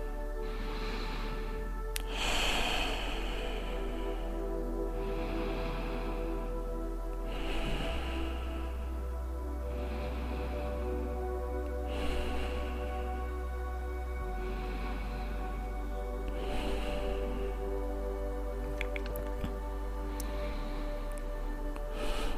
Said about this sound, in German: Und gemeinsam atmen wir hier atmen wir hier noch ein paar tiefe Atemzüge. Gern einfach durch die Nase ein und durch den Mund wieder aus.